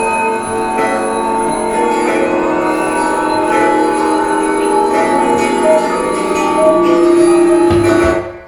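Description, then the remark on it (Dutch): Bells ring loudly and continuously for several seconds, their overlapping metallic tones blending into a dense, steady clangor with no voices. “We hebben een teken gekregen van de klokken.”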